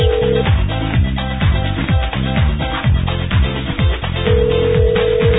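A steady telephone ring tone sounds briefly at the start and again near the end as the Feet to the Fire radio show calls a guest, partly buried under a loud, busy music bed with no talking.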